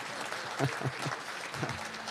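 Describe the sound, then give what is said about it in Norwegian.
Audience clapping rattles steadily for about two seconds, a dense, even patter of hand claps at moderate loudness, with a few brief murmured voice sounds underneath, applauding the sound technician who runs the sound from Notodden. “så jeg kan klappe for han òg.”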